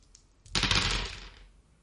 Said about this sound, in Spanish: Me salió un cuatro éxitos. Excelente. me salieron dos 6, un 5 y un 4. O sea, jamás tiré tan bien los dados.